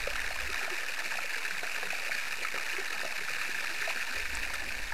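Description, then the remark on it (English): A dense, continuous crackle and fizz of countless tiny bubbles popping underwater beneath a melting glacier, steady and loud throughout with scattered sharper pops and a faint low rumble; no voices. “Believe it or not, that sound you just heard was bubbles under a glacier.”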